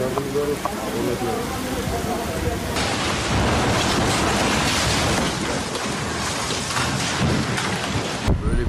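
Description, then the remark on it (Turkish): Heavy rain roars down in a loud, steady wash during a storm in Istanbul, Turkey, with deep thunder rumbling through the storm. The downpour is continuous, swelling even heavier partway through. “Fırtına çıktı başka bir şeye görmedik zaten.”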